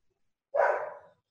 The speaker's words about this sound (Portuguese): Bem, tinha uns, uns cachorros latindo aqui.